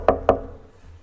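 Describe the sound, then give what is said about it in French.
Two sharp knocks on a wooden door, about a fifth of a second apart, clear, followed by a short fading resonance and quiet room tone. “Il dit j'ai frappé à sa porte.”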